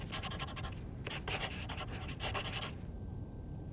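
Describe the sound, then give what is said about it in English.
A pen scratches across paper, writing a cost figure, in several quick bursts of strokes over a few seconds, then stops, leaving a low steady background hum. “I'm going to write a figure on this paper, and this is what it will cost.”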